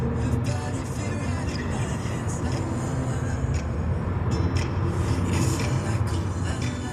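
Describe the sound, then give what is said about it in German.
Steady, continuous road rumble from inside a car driving from the Rhineland to East Berlin, a low droning hum with tire and engine noise holding at an even, fairly loud level throughout, with no one speaking. “45 Jahre danach sitze ich wieder mit meinem Vater im Auto.”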